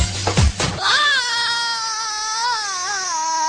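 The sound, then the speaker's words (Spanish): A woman lets out a long, high-pitched scream that holds steady and wavers slightly for about three seconds, loud, following a brief burst of muffled noise at the start. “Y ese grito es el de Dolores.”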